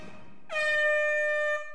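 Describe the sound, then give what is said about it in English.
A loud, sustained buzzer horn ending the timed Red Hot Minute quiz segment blares for about a second, a bright harmonic-rich tone that swells in abruptly and holds steady before cutting off, with no talking over it. “All right, right up against the buzzer.”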